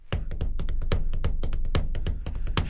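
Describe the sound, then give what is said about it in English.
Rapid tapping on a hard surface beats out a driving, syncopated rhythm of uneven clustered hits, a sped-up version of the a singer's beat, loud and steady for a few seconds with no talking. “And they have this patented rhythm that is kind of a amphetamized version of the … beat.”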